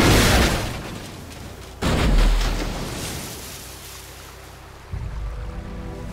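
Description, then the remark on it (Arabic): A car crashes heavily into a canal at Ras El Bar on the Nile in 1944 with a loud splash, followed by a second deep plunge and rushing, churning water that slowly fades, then a low rumbling surge near the end. “بعدما سقطت سيارتنا في ترعة في رأس البر في النيل في الساعة العاشرة صباحا في الرابع عشر من يوليو تموز عام 1944”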